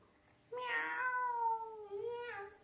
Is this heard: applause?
no